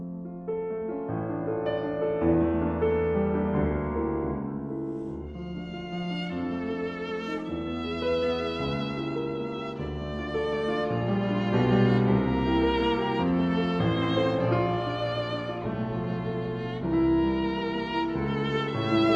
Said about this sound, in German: Und dieser Freund, der war Geiger und logisch, dass das Stück für Geige ist und der Anfang, der hört sich so an.